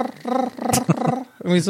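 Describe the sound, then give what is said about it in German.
A voice imitates cicada chirping with a few low, buzzy, voiced bursts in an uneven rhythm, fairly loud, broken by a short laugh and a brief spoken question. “Also mein Sommersound sind so Zikaden.”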